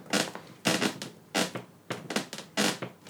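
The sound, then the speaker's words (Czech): Six steady footsteps on a creaking floor with a scuffing, crunchy texture, evenly spaced about half a second apart, moderately loud, with no voices. “jako já si to fakt nebudu odpustit, ale vy jste možná neslyšeli vrzání, které mělo doprovodit. Je, je tam, slyšet, je tam slyšet.”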